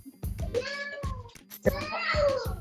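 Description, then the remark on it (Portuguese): A cat between a person's legs in a bedroom meows in two drawn-out, wavering calls, with low thumping or handling noises underneath. “Tem, tem, tem, um gato aqui entre minhas pernas. Eu vou tirar o gato do quarto, senão eu não consigo falar com vocês, gente.”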